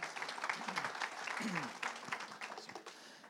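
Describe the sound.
An audience claps together in steady, dense applause that fills the room, with a few murmured voices underneath before it begins to thin out toward the end.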